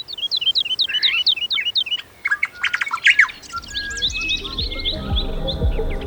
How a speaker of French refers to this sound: Depuis la naissance des civilisations, de l'Asie à l'Occident, chez les musulmans comme chez les chrétiens ou les bouddhistes, aucun son de la nature ne fascine autant l'homme que le chant des oiseaux.